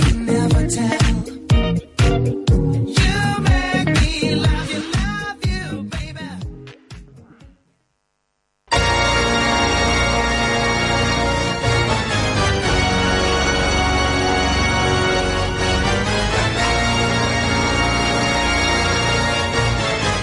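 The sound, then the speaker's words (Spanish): A loud, dramatic organ overture from the film soundtrack version of a stage musical opens with sustained full chords, breaks off into a second of silence, then returns with a dense, swelling instrumental passage. “Seguro que os suena esta música, esta entradilla.”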